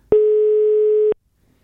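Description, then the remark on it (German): A single one-second telephone ringing tone as an outgoing phone call is placed: a steady mid-pitched beep that starts and stops abruptly, loud and clear, with silence after it and no voices. “Ist der Telefonmann, er geht ans Telefon ran.”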